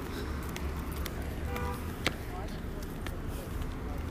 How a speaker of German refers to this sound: Autos hören sich auch so wunderschön an.